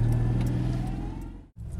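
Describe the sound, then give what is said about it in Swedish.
A car engine hums steadily with low droning tones, then briefly cuts out before resuming, as if the vehicle is pulling away. “Äh, nu, var, nu, åker vi då.”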